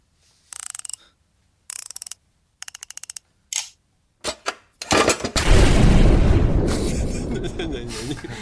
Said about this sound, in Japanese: ダイヤル式の鍵をこう開けようとしてる音だったんだよ。な、なんだろうと思って。カリカリ、カリカリの音。